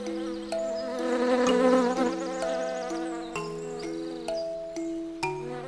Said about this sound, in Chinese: 他们看到一棵橡树，上面有个窟窿，像马的脑袋一样大。蜜蜂嗡嗡嗡地绕着橡树飞着